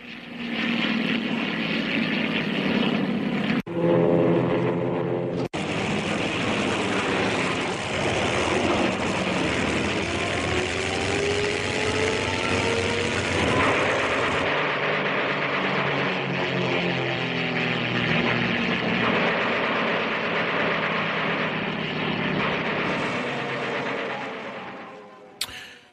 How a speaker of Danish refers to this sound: Det vi hører her, det er sovjetiske øh, bombefly, jægerbombefly nok øh, nærmere, og det der sker, det er, at øh, der kommer den første bølge af, af sovjetiske bomber, der falder over øh, Rønne, og også Næksø.